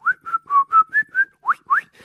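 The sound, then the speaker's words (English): A quick run of about nine short, clear whistled notes, some steady and some sliding upward, played as a lively melodic phrase with no talking; whistle sounds artificially inserted into a famous song. “So we've put in sounds of whistles,”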